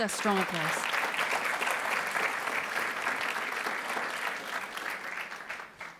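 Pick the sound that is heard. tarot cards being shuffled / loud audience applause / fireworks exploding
loud audience applause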